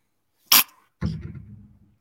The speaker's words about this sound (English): bless you thank you.